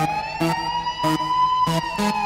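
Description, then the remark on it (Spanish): A police siren wails steadily and loudly while a blaring horn cuts in with four short, forceful blasts at uneven intervals, opening a music track. No voices are heard. “Arranca muy bien con bocina.”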